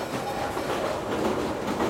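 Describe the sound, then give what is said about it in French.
A train rolls along the rails with a steady, dense rumble and a faint rhythmic clatter of wheels, with no voices over it. “Le train et la navigation à vapeur faciliteront les déplacements.”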